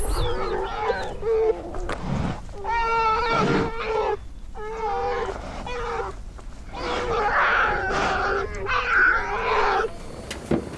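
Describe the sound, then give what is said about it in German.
A mother bear and her cubs in Denali National Park, recorded by a recording station, call back and forth: repeated whiny, bawling cries in short bursts, mixed with rougher huffing growls, fairly loud, with no talking. “Auch diese Aufnahme einer Bärenmutter mit ihren Jungen”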